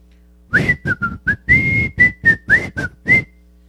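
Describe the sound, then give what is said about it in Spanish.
A person whistles a quick series of about ten short, shrill notes in an uneven rhythm, loud, like a shepherd calling a flock, with no talking. “A la hora de irse, el pastor ni siquiera voltea a ver a sus ovejas, solamente da la vuelta y empieza a silbar.”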